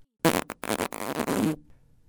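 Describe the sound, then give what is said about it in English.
A loud fart rips out in a few quick sputtering bursts, then one long buzzy stretch before cutting off, with no voices around it. “I love you more than I hate your farts.”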